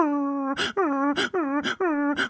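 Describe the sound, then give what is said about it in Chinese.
Stray dogs on a school campus yelping in pain at night as security guards beat them with sticks: four loud, drawn-out high-pitched cries in quick succession, each broken off by a harsh, rasping burst, with no talking. “那些保安，流浪狗们先是汪汪的叫啊，然后是嗷嗷的叫”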